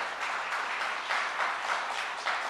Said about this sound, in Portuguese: E pode então aplaudir ao Senhor, se é para aplaudir, aplaude de verdade.